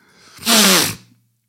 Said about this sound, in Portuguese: Ei, este fungar nojento, pá.